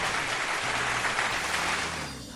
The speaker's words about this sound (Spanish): ¡Aplausos!